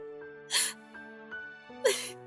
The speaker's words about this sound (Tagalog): Uy! Ba't ka umiiyak? nahihirapan pa rin kasi ako hanggang ngayon eh.